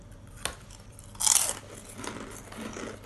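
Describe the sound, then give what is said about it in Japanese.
Crisp crunching of tarako butter (cod roe butter) flavored snack chips from Frito-Lay: a sharp bite followed by a loud burst of crackling, then softer chewing crunches continuing steadily with no one talking. “たらこバター味もあんだねお歳暮ありがとうございますフリトレイさん咀嚼音咀嚼会咀嚼音咀嚼会いただきまるまる”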